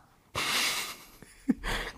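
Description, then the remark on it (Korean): A voice imitates snoring: a long, rasping inhaled snore, a short low snort, then another breathy rasp starting. Fairly loud, with no words spoken. “그런데 이제 코를 많이 골지.”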